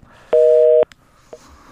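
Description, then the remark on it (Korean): A single steady two-note telephone tone sounds loudly for about half a second as a radio phone interview call drops, then cuts off abruptly, followed by faint clicks and quiet line noise. “전화 끊어졌네요.”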